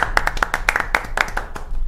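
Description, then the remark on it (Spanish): Brief round of hand clapping, about ten sharp claps in a quick, slightly uneven rhythm, fairly loud and with no talking over it. “Ah, un aplauso.”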